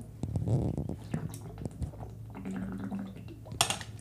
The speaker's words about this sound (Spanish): Espérense, pausa para agua, un segundito.